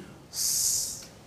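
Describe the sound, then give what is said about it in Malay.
A single sustained, sharp hissing "sss" made by a voice between the teeth, the emphatic sibilant of the Arabic letter sad, held for under a second, fairly loud against a quiet background. “bila kita menyebut huruf itu suara kita ni akan keluar daripada antara dua gigi ni antara dua gigi kita akan keluar sifat uh, yang kuat uh, bunyi seperti suara kalau huruf sad bunyi”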